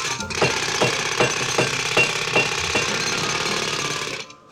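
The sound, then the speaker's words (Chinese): Hammering on a piece of wood during construction late into the night: a steady series of about seven sharp knocks, evenly spaced, ringing out over a continuous noisy clatter, then stopping abruptly at the end. “他心想啊，为了保险起见，他就拿过来了一个木头，敲敲打打，空空空空空啊，施工到深夜。”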